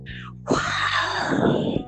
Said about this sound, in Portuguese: É, eu bocejei, foi um bocejo.